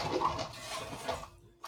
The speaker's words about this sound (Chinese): 好像是外面的人不知道在弄吸尘器还是什么之类的吧。